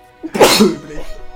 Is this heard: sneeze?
yes